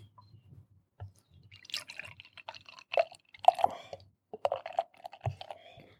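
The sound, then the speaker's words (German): Thick Triple Dry Hopped Quadruple IPA beer, 11.3 percent, pours into a glass, with uneven glugging, dripping splashes and small clinks over several seconds, with no one talking. “Willst du mal einschenken? Ja. Wir hatten das Mikrofon dran.”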